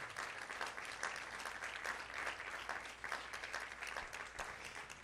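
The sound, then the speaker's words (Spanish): Sustained applause from an audience giving the Lord a hand clap, many hands clapping together in a dense, steady wash of sound for several seconds with no one speaking. “Give the Lord a strong hand clap.”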